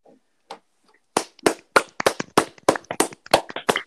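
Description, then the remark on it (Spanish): A handful of people clap together in a short burst of applause for Carlos Slim, sharp claps in a quick uneven rhythm that follow a few faint, scattered taps at the start. “Le aplaudíamos a Carlos Slim, no a ti.”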